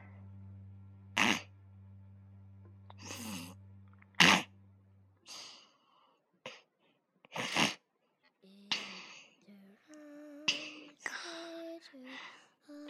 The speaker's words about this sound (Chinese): 这是打呼噜声啊！是…在打呼噜呢。